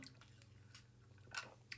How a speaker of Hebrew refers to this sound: אני אקח שלוק מים שנייה.